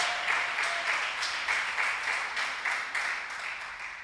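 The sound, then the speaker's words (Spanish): A church audience applauds steadily after a prayer, giving another applause to the King of Glory, many hands clapping in a dense, continuous patter with small rhythmic surges, fairly loud and without talk over it. “Den otro aplauso al Rey de Gloria.”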